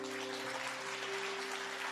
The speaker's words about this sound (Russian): Еще, пожалуйста, вот аплодисменты.